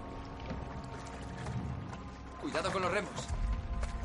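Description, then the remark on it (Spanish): Oars dip and pull through water in a slow, steady rhythm as a boat crew rows slowly among frozen bodies in the water, searching for survivors, over a low watery rumble, with a voice calling out briefly partway through. “Avanzan despacio para no dañar a nadie con los remos y tiran de alguno para comprobar si vive.”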